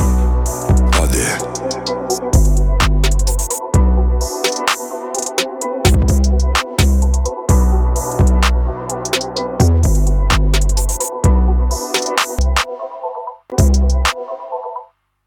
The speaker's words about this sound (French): C'est un son de son EP où il a sorti euh, sept titres.